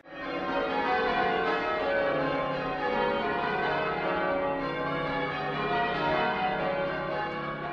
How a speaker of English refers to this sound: So whenever I visit the UK on Sunday morning, I open the windows, no matter what time of the year it is. It tends to be summer now these days, and I just listen for the churches to peal. You know, the dun dun dun dun dun. dun. Oh, so lovely.